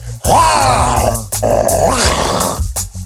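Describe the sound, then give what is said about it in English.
A person imitates a woman who acted like a rabid dog when touched during prayer, letting out two loud, strained snarling growls, each lasting about a second, with a brief gap between them. “And she went to touch the, the and the lady was like, like a like a like a rabid dog.”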